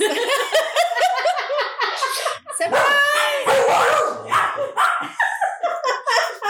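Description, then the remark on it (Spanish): A female dog barks and yelps in quick, repeated bursts, mixed with people laughing loudly over it for several seconds. “Hasta la perra la sorprendió.”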